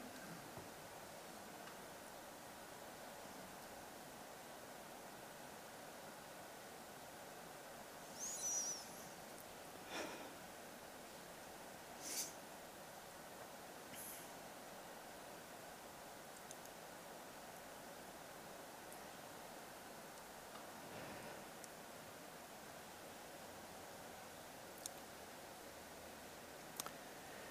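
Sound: room heater running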